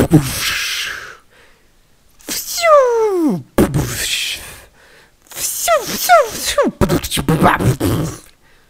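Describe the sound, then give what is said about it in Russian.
A voice mimics fireworks: several falling whistles, each sliding down in pitch, broken up by loud hissing, breathy bursts, in three separate flurries over about eight seconds. “Это был фейерверк, если кто-то не понял.”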